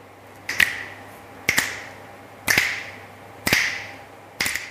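Five crisp finger snaps, given as a start signal, at a steady pace of about one per second, each a sharp, bright crack with a short ringing tail, with no talking around them.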